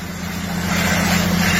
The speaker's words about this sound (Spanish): Bueno, se me prendió la guagua. El bobo. La guaguita mía. Mira cómo se prendió.